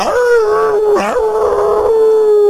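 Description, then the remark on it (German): A person imitates a coyote howl: one long, sustained tone that rises at the start, wavers with a brief break in the middle, then holds steady and loud. “Ach, so macht der Kojote.”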